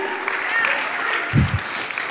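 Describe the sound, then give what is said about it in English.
Two sharp hand claps as the speaker claps his own hands, standing out briefly over a steady background of crowd noise and murmuring voices. “I-, I can clap my hands.”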